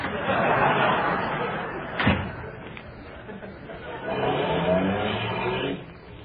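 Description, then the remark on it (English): A car door slams shut with a sharp thud, then an engine rumbles and revs up, its drone rising and holding steady. Voices can be heard talking faintly in the background. “Can't this car go any faster?”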